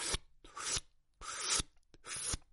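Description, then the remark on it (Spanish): Four raspy, scraping swooshes of a broom dragging across the floor play backwards, each swelling and then cutting off with a sharp click. They come at an uneven pace with brief silences between them, and no voices. “Claramente son sonidos invertidos, ¿no?”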